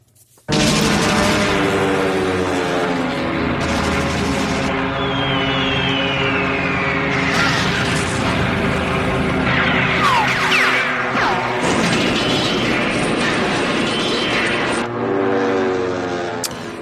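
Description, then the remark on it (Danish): A loud, continuous battle scene from a 1976 Hollywood war film: roaring propeller Japanese Zero fighter planes attacking US forces swoop past with falling, whining dives, while heavy explosions burst through the din. “det vi hører her, det er japanske seroer, der angriber USA's øh, landstyrker faktisk i Hollywood-filmen Midway fra, fra 1976”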